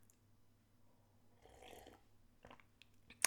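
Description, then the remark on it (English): A quiet slurping sip of coffee that is getting cold, lasting about half a second, followed by a couple of soft clinks and taps, like a mug being lowered and set down. No one speaks. “It's getting longer than I had hoped, so we need another sip of coffee.”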